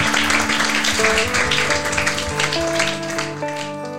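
A crowd claps steadily and densely for about four seconds, the sound thinning slightly toward the end, with steady sustained tones humming beneath the applause.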